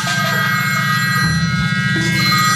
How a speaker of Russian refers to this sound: Первый звонок раздался в 9 вечера.